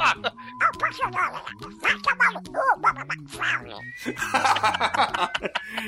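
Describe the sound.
A person does a Donald Duck voice imitation, a rapid stream of buzzy, garbled quacking syllables delivered loud for several seconds, ending in a brighter, raspier burst.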